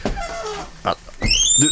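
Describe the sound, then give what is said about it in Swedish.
A person imitates a lion's roar with a few short, gravelly growls, ending in a louder, strained rising howl. “Jag har nog något lejon igen.”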